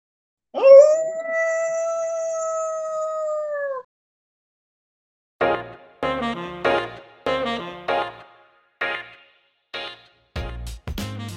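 A single long, steady howl rises sharply and then holds for about three seconds, followed by a rapid series of short, rough yelping bursts. All of it is loud, with no talking.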